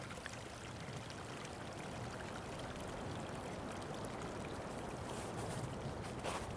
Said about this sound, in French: un petit vent qui vient de se lever là sur, euh, sur la montagne, là où je suis en train d'enregistrer. je t'invite à, laisser ce vent glisser sur toi, qui ne t'impacte pas sur ta concentration, sur ta respiration.